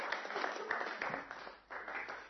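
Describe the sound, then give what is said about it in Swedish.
An audience applauds and cheers in rejoicing on Easter Day, a dense, continuous wash of clapping and voices filling the room for a couple of seconds, with a brief dip before swelling again. “nu är vi påskdagen och nu är det framåt och nu är det tid för jubel amen det är tid för jubel och glädje”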